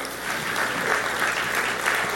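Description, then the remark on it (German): A crowd claps steadily for a couple of seconds, a dense, even patter of many hands at a fairly loud, constant level with no voices standing out, applauding the Romanian translator who sits up in the gallery during a sermon. “Also wir können der Übersetzerin mal einen Applaus geben, die sitzt oben auf der Empore.”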